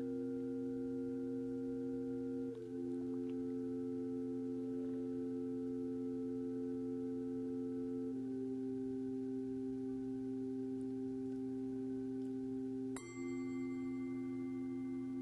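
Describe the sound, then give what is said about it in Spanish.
Soft meditative music built from steady, sustained sine-like tones that drone continuously, with gentle pitch shifts partway through and a bright new chord entering near the end. No voices. “Solo siente y escucha la música.”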